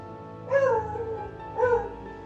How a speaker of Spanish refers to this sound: Otra teoría defiende que proviene de beagle por su ladrido cantarín.